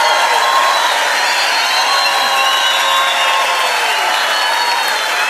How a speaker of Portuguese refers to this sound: Vocês poderiam, com gritaria, assobia, assobio, bateção de pé e palmas, agradecer a nossa equipe de som, de voluntários, do Ragai, de todo mundo.